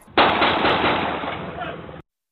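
A loud, rapid burst of gunfire as Los Angeles Police Department officers shoot at an armed man in a street, recorded on March 29: shots running together into a rough, crackling volley for nearly two seconds, starting and stopping abruptly with a muffled, band-limited tone.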